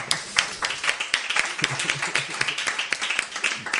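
A crowd claps steadily, many hands beating fast and overlapping into a dense, bright patter that holds at an even, fairly loud level throughout.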